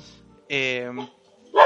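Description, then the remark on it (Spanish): A dog barks loudly, one drawn-out bark followed by a short sharp one after a brief pause, with a faint voice just before. “Em, mi perro interrumpiendo nuevamente.”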